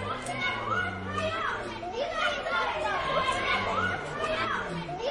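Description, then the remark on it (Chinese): Several children's voices, as little animals in a circle at a playground quarreling over the slide, overlap in a constant, noisy jumble of shouting and chatter, high-pitched and rising and falling, with no pauses across the few seconds. “皮艾可被一阵吵闹的声音打断，好像是一个游乐场，几个小动物正围成一圈争吵着。”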